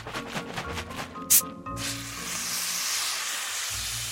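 A soda bottle is opened with a short, sharp hiss of escaping gas, then a steady fizzing carries on for a few seconds. No one speaks.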